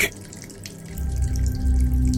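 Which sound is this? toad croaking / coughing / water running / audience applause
water running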